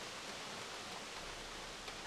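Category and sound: nature, waterfall rushing water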